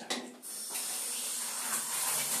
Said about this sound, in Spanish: sonido de la ducha original. ¿Ves? Me inspiro ahí con la ducha.